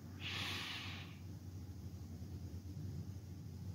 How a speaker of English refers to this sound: Breathing in this present moment. Breathing in goodness and peace. exhaling anxiety and discouragement. Breathing in